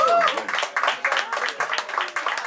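A small group applauds, with quick overlapping claps forming a steady, moderately loud patter that holds for a couple of seconds, with a faint high tone at the start.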